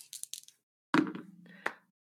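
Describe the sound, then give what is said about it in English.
A few light clicks, then dice clatter down onto a hard table and roll briefly before settling with a final tap, landing on eleven. Fairly quiet, with no talking. “That's an eleven on the dice plus three for my nice.”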